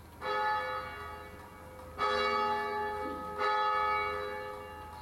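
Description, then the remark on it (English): Three resonant church bell strikes ring out at a steady, unhurried pace, each one blooming with bright harmonic overtones and a long, shimmering decay that overlaps the next. No voices are heard. “Bells have a, a way of knowing when to ring.”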